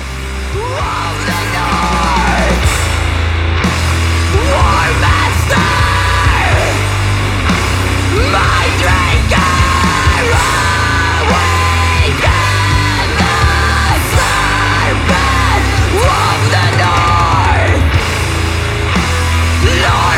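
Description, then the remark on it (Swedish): In the second half of a song, a crowd of voices roars and yells together over loud, driving music, the shouting sustained and raw throughout, with rising and falling vocal swoops layered on a heavy low-end pulse. “Men just den andra halvan av den låten, när det bara mm. liksom bara vrålas.”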